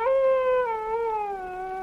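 A dog howls in one long, sustained note that slowly sinks in pitch, steady and fairly clear throughout, with no one talking over it.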